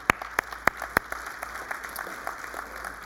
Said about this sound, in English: I'll tell them you clapped.